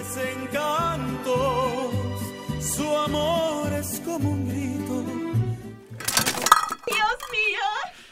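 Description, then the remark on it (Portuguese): Soft music plays, then a sudden burst of clattering metal as pots and pans crash to the floor in a kitchen, followed by wavering voices crying out. “Juanita acordou assustada, sozinha em sua cama, com gritos e barulhos de panela caindo da cozinha”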